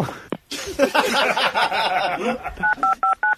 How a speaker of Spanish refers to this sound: Ahora ella está llamando a la poli. Ah, Tú le pones los tonos, ¿no? Porque no ha colgado bien.